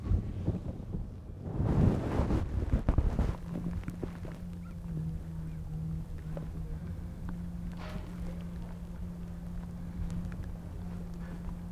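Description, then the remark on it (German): After a few seconds of close rubbing and rustling, an implanted heart pump, fitted at the right apex of the heart, hums steadily and continuously in the chest, a low even electric drone like an electric shaver, with no heartbeat rhythm, picked up very close as if pressed against the chest. “Da hörst du keinen Herzschlag mehr, nur noch Summen.”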